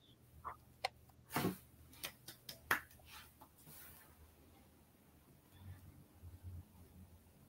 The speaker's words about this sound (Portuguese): E aí a mediunidade de efeitos físicos, né, que fez o celular cair.